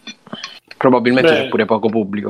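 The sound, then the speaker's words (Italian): A bottle being opened, with a few glassy clinks and rattles at the start, then a person talks over the faint continuing handling noise. “Ma chi è che sta aprendo la bottiglia?”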